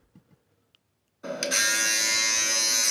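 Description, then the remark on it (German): After a moment of near silence with a few faint clicks, an electric razor switches on and buzzes loudly and steadily, with a bright harmonic hum that continues to the end. “Habt ihr das gut gehört? Rasierer.”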